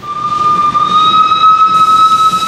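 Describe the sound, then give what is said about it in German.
A historic steam locomotive of the Brohltal railway, running between Brohl am Rhein and Engeln in the Eifel in northern Rhineland-Palatinate, Germany, lets out a long, steady whistle over a constant background hiss of steam, loud, with no one talking. “Es zischt und dampft zwischen Brohl am Rhein und Engeln in der Eifel, denn hier oben im Norden von Rheinland-Pfalz schnaufen die historischen Loks der Brohltalbahn bis ganz weit rauf in schwindelerregende Höhen”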